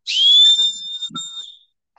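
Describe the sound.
A shrill whistle attached to a lamp, blown to mimic a dying horse's whinny: a sharp rising squeal that settles into a long, wavering high tone with a brief break, loud, lasting under two seconds.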